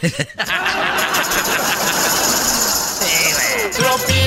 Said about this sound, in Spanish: Y a veces estoy usando la licuadora para hacerme un licuado, güey.